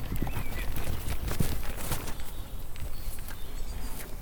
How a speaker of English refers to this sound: the sound of the horses' hooves pressing down on the crunching twigs